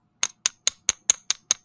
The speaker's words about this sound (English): That's the sound of silver, baby.